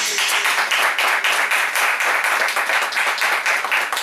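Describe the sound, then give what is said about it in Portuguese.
An audience at a church service applauding Jesus together, steady dense clapping from many hands at a loud, even level throughout. “Pode aplaudir Jesus.”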